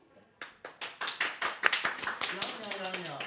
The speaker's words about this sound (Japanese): ありがとうございます、えー、まばらな拍手をいただきましたうん、大勢でっていうわけにはなかなかねこのご時世できませんからあの非常に熱い思いを持った皆さんの温かい拍手をいただいて、えご紹介してまいります。